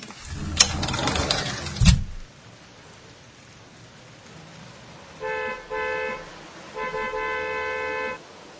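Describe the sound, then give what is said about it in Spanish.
A car swishes past on a wet-sounding street, then after a lull of steady background hiss, a car horn honks three times: two short blasts followed by a longer one. “Desde el balcón, los autos son aviones del suelo.”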